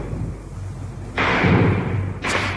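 Machine-gun bullets strike a wall behind the Hotel Duna, between the hotel and the Danube in Budapest, as Russian tanks pass, in a radio report: two loud, harsh bursts of cracking impacts, the first lasting about a second, over a steady low rumble. No one speaks.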